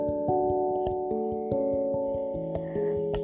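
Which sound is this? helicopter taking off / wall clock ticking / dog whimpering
wall clock ticking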